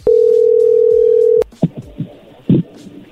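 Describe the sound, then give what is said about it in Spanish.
A telephone connection tone: a single loud, steady mid-pitched beep holding for about a second and a half, then a sharp click followed by faint muffled line noise and soft thumps. “A ver, ya entró la llamada.”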